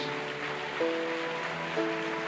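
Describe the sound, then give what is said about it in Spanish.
An audience loudly applauds God in a steady, dense wash of clapping that fills the room, while sustained keyboard chords hold underneath and shift a couple of times. “Dar un aplauso fuerte a nuestro Dios.”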